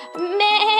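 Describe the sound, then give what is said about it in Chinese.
A single sheep's bleat from inside a burlap sack, loud and quavering, rising from a brief nasal start into a long wavering cry rich in harmonics, heard on its own without any talking. “突然，麻布口袋中发出了一阵呻吟，那是大家都非常熟悉的声音。”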